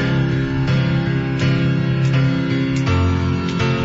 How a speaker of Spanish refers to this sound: inicia como una canción de … que se llama …, pero se llama … y suena así